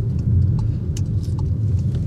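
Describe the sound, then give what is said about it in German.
A steady low engine rumble from inside a moving car as it reaches a highway on-ramp, with a constant road drone and faint higher clicks and rattles over it, no voices. “Ich sitze in meinem Auto Ach, hier ist schon die Autobahnauffahrt.”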